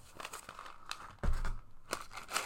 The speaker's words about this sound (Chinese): 给你们听听豆子，我不知道可不可以这样咬哎、欸。如果不行，这样咬你再告诉我好了。但是我只是想让你听一下豆子的声音。